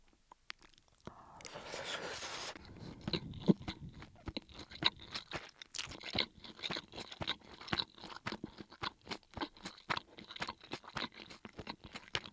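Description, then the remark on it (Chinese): Someone eats reheated frozen fried rice, with a brief rustle and scrape at the start followed by a steady run of soft, moist chewing and crunching, rhythmic and fairly quiet, with no talking. “OK，来吃吃看吧。”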